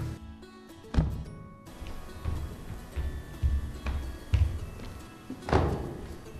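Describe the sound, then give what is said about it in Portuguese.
Pastry dough handled by hand: soft, irregular thumps and dull slaps as it is lifted and stretched thin like a bedsheet into little waves, with faint rustling in between, moderately quiet, no voices. “está a agarrar na massa e está a. a a levantá-la como se fosse eh, como se fosse um lençol e depois faz estas ondinhas todas”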